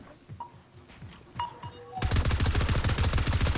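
Rapid automatic gunfire from spray weapons in a video game erupts suddenly after a couple of quieter seconds with a few scattered thuds, then continues loud as a dense, steady burst of shots.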